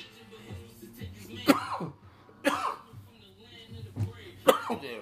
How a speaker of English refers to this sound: shit got me coughing like motherfucker. Pardon me.